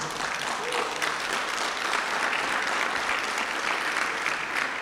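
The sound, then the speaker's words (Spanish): An audience applauding the Lord steadily, a dense, even wash of many hands clapping that holds at a constant loudness for about five seconds with no voices rising above it. “Aplaude al Señor, por favor.”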